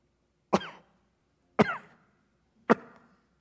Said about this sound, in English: that wasn't a real cough. Get it?